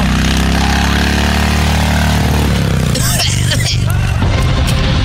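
A loud motorcycle engine drones steadily as the motorcycle rides through a tunnel, then shifts into a rougher, rumbling roar partway through as it keeps running.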